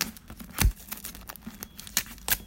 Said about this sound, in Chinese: 好，我拿一下剪刀。 现在用剪刀把旁边戳一个洞。